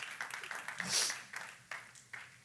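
An audience claps their hands together, a dense stream of many overlapping claps with rhythmic pulses and a brief brighter swell of noise partway through.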